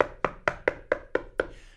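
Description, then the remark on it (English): Six sharp knocks on a door in a quick, even rhythm, fairly loud, with a short resonant ring after each rap and no voices. “No, not somebody's at the door.”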